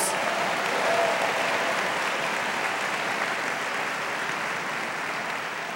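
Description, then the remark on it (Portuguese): An audience breaks into sustained applause for the greatness of God, a dense, steady wash of many hands clapping at once that holds at an even loudness for several seconds without any talking. “Você pode aplaudir a grandeza deste Deus?”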